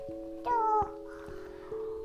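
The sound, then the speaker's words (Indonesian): A single short meow from a startled cat, rising then falling in pitch, sounds over steady sustained background tones, with no talking. “Itu kucing juga kaget.”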